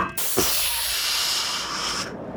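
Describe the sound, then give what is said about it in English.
A voice mimics an air conditioner kicking on with a steady, breathy whoosh of hiss that holds for about two seconds, fairly loud, with a soft thump near the start. “like an AC kicks on, if you will, like that sort of sound, like a.”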